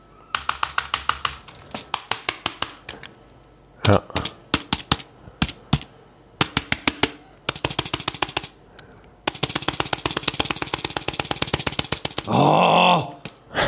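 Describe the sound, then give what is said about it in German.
Rapid, forceful keystrokes hammer away at a laptop keyboard in loud bursts, some stretches frantic and dense, broken by short pauses; a brief spoken word and a groaning voice come in near the end. “auf der Tastatur seines Laptop, Laptops volle Sau drauf rumgezimmert hat”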